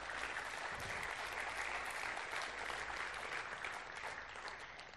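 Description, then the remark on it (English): A church audience applauds steadily throughout, a dense wash of many hands clapping at fairly even volume, easing slightly toward the end. “I might get a clap.”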